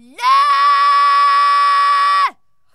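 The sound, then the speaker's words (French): A single drawn-out animal vocalization with a saturation effect applied, heavily distorted, holding one steady buzzy pitch for about two seconds at full loudness before cutting off abruptly. No voices. “Par exemple, ça, c'est des vocalisations animales.”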